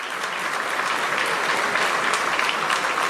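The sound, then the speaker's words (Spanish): Applause in a legislative chamber, started by legislative president Ernesto Castro after four seconds of silence and spreading in a chain reaction: many hands clapping in a dense, steady roar that holds at an even loudness throughout, with no voices rising above it. “se produjo un silencio de cuatro segundos hasta que Ernesto Castro, presidente del legislativo, aplaudió desatando una reacción en cadena.”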